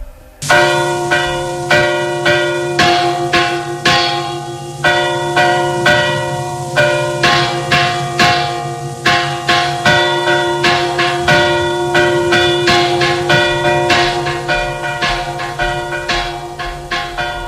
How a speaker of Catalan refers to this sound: I després també hi havia sons de campanes per actes religiosos i socials